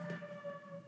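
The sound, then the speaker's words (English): Ambulance sirens wail faintly, a steady high tone held through the brief moment with no one talking. “Sorry if you can hear some ambulances in the background,”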